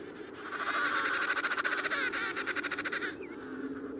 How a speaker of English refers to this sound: So every so often, she stops and calls. Her cry is unique, and the father responds with a call of his own.